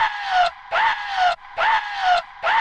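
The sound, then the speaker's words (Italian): A loud Tarzan-style jungle yell rings out alone, its voice breaking back and forth between high and low pitches in a quick, rhythmic yodel lasting a few seconds. “Co- co- è, un, è, un, urlo. Sì, è un no, Tarzan. una cosa del genere.”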